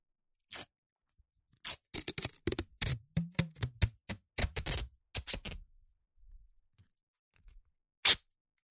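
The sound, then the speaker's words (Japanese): Masking tape is pulled off the roll in a run of crackly ripping bursts, pausing briefly, then ending with one sharp final tear, cutting off a length of about one turn of the roll. No one speaks. “切り取ったテープは後で使う。机の端にくっつけておこう。もう一周切り取る。”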